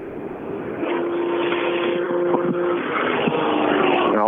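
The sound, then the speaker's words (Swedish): A rally car engine roars steadily and loudly for a few seconds as the car arrives at the finish of stage SSV, its pitch holding and shifting slightly as if driving past at speed, with no voices present. “den, den, den, här bilen, den här bilen måste man ju prata med.”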